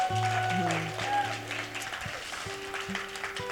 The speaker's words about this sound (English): If you've been in, you can clap for that.